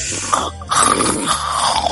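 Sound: voice imitating snoring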